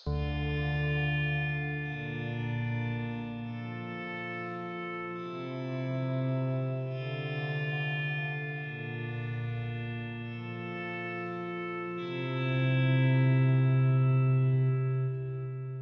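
A rock song plays, opening with sustained, effects-laden guitar chords that shift every couple of seconds at a steady, moderate volume, swelling slightly louder near the end. No voices are heard.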